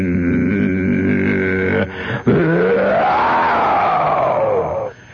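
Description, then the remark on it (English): A voice hums a low, droning buzz imitating an airplane engine flying right over a house, steady, briefly breaking off before swelling upward in pitch and sinking again over about five seconds. “I can't believe it coming right over the house, across the street, coming right at me, is an airplane.”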